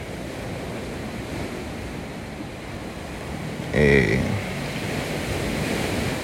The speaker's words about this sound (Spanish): también linda esa ola rompiendo hoy. Y realmente no está tan ventoso, pero hay mucho oleaje, un poquito allá hacia el mar adentro. Bastante oleaje y se mueven mucho los árboles.